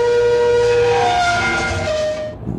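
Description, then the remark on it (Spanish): A mine cable scrapes along the hull of a mini submarine moving through a minefield, in a loud, continuous metallic screech, its squealing tones sliding in pitch over a grinding rumble before cutting off abruptly. No one speaks. “Que alguien me diga que no es el cable de una maldita mina.”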